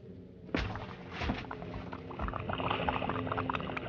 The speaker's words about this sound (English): He hits the water, manages to crawl into his rubber dinghy.